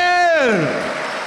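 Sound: audience applauding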